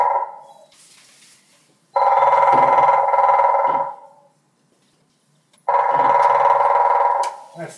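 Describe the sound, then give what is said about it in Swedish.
Two long, very fast drum rolls of a grey-headed woodpecker, each buzzing and vibrating for about two seconds, loud, with a short quiet gap between them. “Ni hör gråspetten, den är lite vibrerande sådär, väldigt snabb.”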